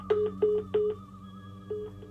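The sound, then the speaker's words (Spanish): A dropped telephone call leaves a line tone: three short, evenly spaced beeps, a pause, then a fourth beep, all over a steady low electrical hum. No one speaks. “Se cortó. Se cortó definitivamente.”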